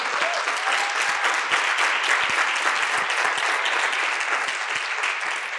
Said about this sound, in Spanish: Estamos en Ciudad Juárez, Chihuahua, México, frontera con Estados Unidos. Por favor, reciban un aplauso de todos nosotros como saludo.